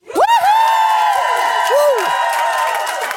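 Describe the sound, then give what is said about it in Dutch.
A live audience at the Manifestatie event cheers loudly, with whoops and rising, wavering shouts over a dense wash of voices and scattered clapping, sustained throughout. “Een bijzondere mag ik wel zeggen, want eh, ik heb live publiek.”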